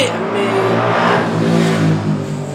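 A car engine revs loudly as the vehicle speeds by, its pitch rising and falling in a steady roar that fills the short moment.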